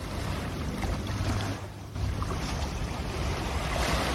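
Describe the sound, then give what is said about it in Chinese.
Sea waves of the rising tide wash in from the right, strike toward the left and then recede, with a steady, loud rushing hiss and wind noise; the surge eases briefly just before the midpoint, then swells back and continues. No voices. “如果你戴着耳机的话，你还可以听到声音的画面，这样从右而来，然后打到左边去，然后又退回去的声音。”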